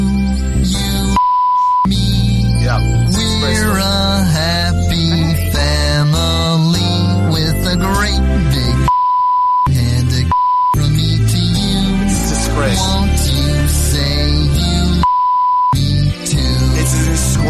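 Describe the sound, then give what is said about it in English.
A loud, busy TV theme tune plays throughout, cut into several times by short, steady electronic beep tones that briefly replace the music. “The theme tune of it uh, is here. Have a listen to this.”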